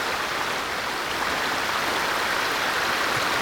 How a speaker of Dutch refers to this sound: Het beekje begon te groeien. Steeds groter, breder, sneller, steeds krachtiger te stromen. En voor mijn ogen veranderde het in een krachtig kolkende rivier.